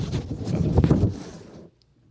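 A deep rolling rumble of thunder, heavy in the low end, surges and churns for about a second and a half, then cuts off abruptly into near silence.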